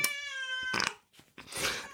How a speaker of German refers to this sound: Ich, ich tue kurz die Katze raus. Die kannst du rausschneiden, gell? Du hörst den auch, oder? Ja, die ganze Zeit schon. Ich war mir nicht sicher, ob das ein schreiendes Kind oder eine Katze ist. Nee, das ist ein Kater.